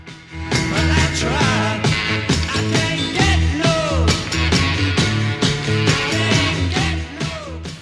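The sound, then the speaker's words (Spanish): A loud, dense rock track, a single, where at minute 2:33 a distorted electric guitar kicks in over steady bass and drums, the crunchy fuzz distortion effect cutting in slightly ahead of the beat as a recording error. “Y el otro error es en el minuto 2.33, donde se puede escuchar cómo el efecto de distorsión entra desde antes.”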